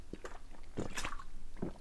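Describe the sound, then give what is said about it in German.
Quiet sipping of water from a bottle: a few soft, wet gulps and swallowing sounds spaced out over a couple of seconds, with no talking. “Und dann nehme ich doch noch mal ein Schlückchen aus meiner Flasche.”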